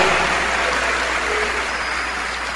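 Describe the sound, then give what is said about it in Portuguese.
A church audience claps for the Lord Jesus, a dense, sustained wash of many hands with no distinct individual claps, loud and continuous throughout, with no voices standing out. “Vamos aplaudir mais o Senhor Jesus, igreja. Vamos aplaudir.”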